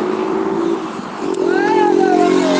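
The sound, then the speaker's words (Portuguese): A motorcycle roars past very close on a city street, nearly running someone over, its engine loud and buzzing, the pitch rising and then sliding down as it speeds by over steady street noise. “Quase fui atropelado uma moto aqui agora que gritando.”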